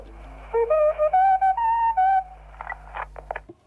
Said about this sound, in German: Das war also der Ton vom Bayerischen Rundfunk, den man gehört hat am Telefon.